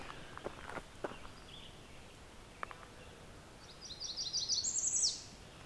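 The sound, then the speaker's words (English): A redstart sings a thin, very high-pitched song that mimics a Blackburnian warbler, rising to a sharp buzzy finish, after a few soft footsteps crunch in a quiet outdoor setting. “So I got a redstart that's kind of mimicking the Blackburnian warbler song.”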